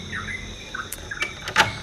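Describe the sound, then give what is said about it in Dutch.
The wooden doors of a joglo, a small Balinese house on Bali, creak and knock as they are opened at half past five in the morning, with a few short clunks and scrapes, while faint bird chirps carry on in the background. “Zo, ik maak lekker de deuren van mijn joglo open.”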